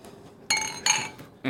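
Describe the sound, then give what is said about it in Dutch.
Beer glasses clink together in a toast over a second round of beer, two or three bright ringing taps in quick succession, fairly loud, with faint background murmur. “Proost.”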